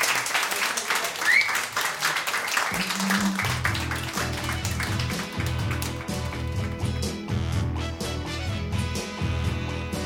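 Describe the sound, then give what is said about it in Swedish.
A large crowd applauds with dense, steady clapping that carries through the whole stretch, as a bass-heavy song kicks in about a third of the way in and plays beneath it. “Där var den! Applåd!”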